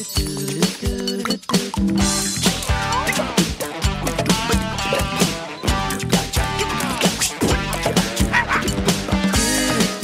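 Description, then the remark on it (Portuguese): A person imitates a dog's barks and yips with their voice, not a recording of a real dog, repeated in quick bursts over a loud, busy instrumental theme tune whose bright tinkling accents and other little sounds are also made by mouth. “os latidos do Costelinha eram uma pessoa. Não era sonoplastia gravada de um cachorro de verdade”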